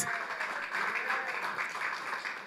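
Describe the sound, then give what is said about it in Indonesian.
A crowd at Anugerah Church at Storehouse cheers and applauds together for Jesus, a dense, steady wash of clapping and raised voices that holds at an even loudness for a few seconds. “Sorak-sorai buat Tuhan Yesus.”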